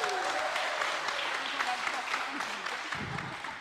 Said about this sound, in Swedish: De känner ni väl igen, men ge dem en härlig applåd.